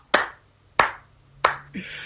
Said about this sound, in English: Oh, that deserves three claps right there.